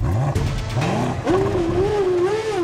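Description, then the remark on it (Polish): A powerful eight-cylinder combustion car engine roars steadily, its pitch rising and falling as it revs up and down, loud with a deep rumbling growl throughout. “Ten ekscytujący dla wielu dźwięk to 12-cylindrowy silnik spalinowy. 8 cylindrów”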